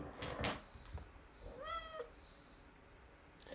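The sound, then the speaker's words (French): A female cat that has just woken from a nap lets out one clear, drawn-out meow, following a few soft knocks and rustles, then all goes quiet. “Je suis désolé, mon chat, Il a envie de s'entraîner. Elle miaule énormément.”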